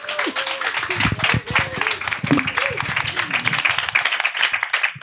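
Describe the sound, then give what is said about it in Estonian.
A crowd applauds steadily for about five seconds, a dense, even patter of many hands clapping at once, with a few voices calling out over it. “suur tänu, teeme ühe aplausi veel”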